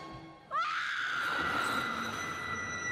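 In a film scene, a mother coming to her child lets out a loud, piercing scream that starts abruptly after a brief quiet moment and holds steady at a high pitch for over two seconds.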